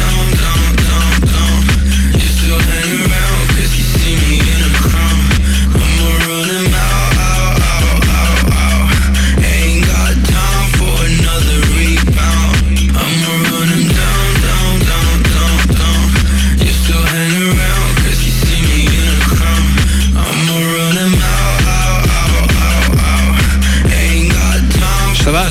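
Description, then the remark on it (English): Loud trap music driven by a buzzing, slightly distorted bass that drones continuously, with brief drops every few seconds where the low end cuts out before slamming back in. No voices. “style of music by definition is trap because it's got a kind of a buzzing continuous bass sound with a bit of distortion on it with like a, sort of like a bit of an attitude and stuff so that's trap that's that's a bit of a breakaway from hip hop”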